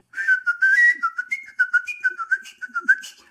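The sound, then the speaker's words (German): Skilled artistic whistling of Johann Sebastian Bach's Badinerie, bright and clear with rapid, precisely articulated notes in quick runs, leaping between pitches in a lively rhythm, with no talking. “Was macht das Pfeifen zu etwas Kunstvollem?”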